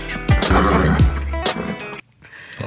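A horse neighs loudly, a harsh whinny lasting about two seconds with falling pitch sweeps, then cuts off abruptly, followed by a brief quieter rustle.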